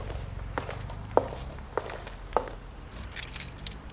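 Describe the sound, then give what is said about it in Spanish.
Steady footsteps walk along a hallway leading to the street at an even pace, four or five distinct steps, followed by a bright metallic jingle like keys toward the end. No one speaks. “El secretario general de la CGT atravesó el pasillo que lo separaba de la calle y cometió la imprudencia de salir primero.”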